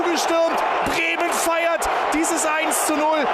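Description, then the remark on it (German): A huge stadium crowd of about 20,000 roars and cheers continuously after Bremen scores against Hertha BSC in the sixth minute, a dense wall of shouting voices with individual yells and whoops rising out of it, loud throughout. “Stille in der Ostkurve. Es jubeln nur die 20.000.”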